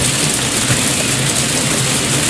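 Steady, loud rain falling outside hisses across a wide range, a dense unbroken wash of patter with faint low rumbling beneath and no voices.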